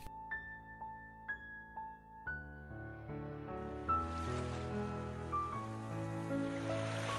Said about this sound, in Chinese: 海与天空一样，辽阔而无边。你听到海浪拍打礁石的声音，时而温柔，时而仿若刀光剑影，藏着情绪涌动，藏了无穷故事。